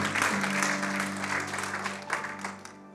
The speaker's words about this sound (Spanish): Denle ese aplauso fuerte al Señor porque Él es bueno.